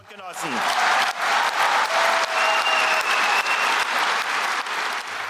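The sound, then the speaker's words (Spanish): Loud, sustained applause from a large crowd at the SPD party congress last December, after a speech by Kevin Kunert, leader of the German Social Democratic youth; a dense wash of clapping that swells in quickly and holds steady for several seconds, with faint cheers and whistles mixed in. “El discurso del líder de las juventudes socialdemócratas alemanas, Kevin Kunert, fue uno de los más aplaudidos en el último congreso del SPD el pasado diciembre.”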